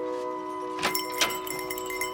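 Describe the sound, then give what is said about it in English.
The door of a hospitality center opens with a bright chiming jingle, two quick metallic rings over a steady tonal hum, the chimes ringing out briefly before fading. “The door opens with a, a, a chimed jingle as you enter, um, and it's a quiet building.”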